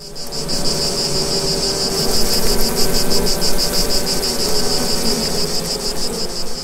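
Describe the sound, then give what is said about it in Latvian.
Horseflies drone low beneath a dense, steady chorus of high, pulsing cricket chirps on a hot summer day, an unbroken outdoor insect hum with no voices. “Jā, tā varētu teikt, ka arī dunduri tur skanēja pilnīgi noteikti.”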